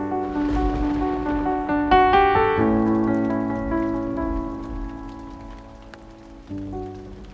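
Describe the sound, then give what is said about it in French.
Heavy April rain showers pour down violently and steadily, a dense hiss that fills the background beneath sustained, swelling musical chords, with no voices present. “Malgré Avril, qui crache ses ondées avec violence,”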